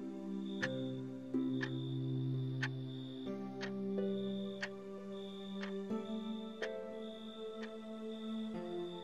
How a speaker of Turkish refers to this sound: gibi saat. Tik tak, tik tak. Gecenin şarkısına eşlik ediyor.